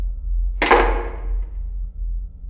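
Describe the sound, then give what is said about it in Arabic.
A single heavy door slams shut with a sharp bang, its resonant crash fading over about a second, set against a low, steady background rumble. “وفجأة اختفى الظل مع خبطة الباب”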